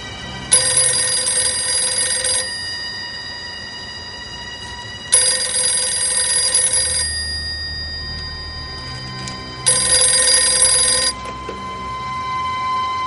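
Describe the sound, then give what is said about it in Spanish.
A telephone rings in three separate bursts, each lasting about two seconds with short pauses between. The bright, insistent ring is clear, with no voices. “Julio coge el teléfono.”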